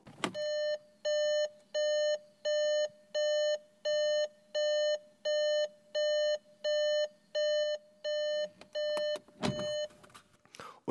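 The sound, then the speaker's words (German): A car's warning chime beeps steadily in an even on-off rhythm, about fourteen bright tones with equal gaps, over a low engine hum, ending with a few clicks and a thump. “wehe, wir sind nicht angeschnallt, dann kann es alles noch viel höher piepen.”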